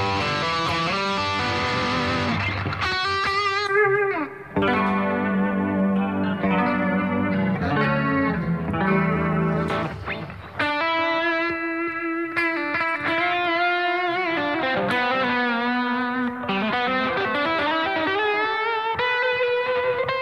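A guitar runs through a Boss GT-1000 multi-effects processor, played for the first time straight out of the box with its factory sounds. Its sustained, harmonically rich notes are colored by chorus, distortion and a wash of reverb. It plays melodic lines continuously at steady volume with no one talking.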